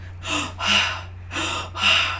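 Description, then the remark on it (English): A person gives sharp gasps, four breathy intakes in two quick pairs, imitating a man starting to breathe again, over a faint steady low hum. “Start breathing again.”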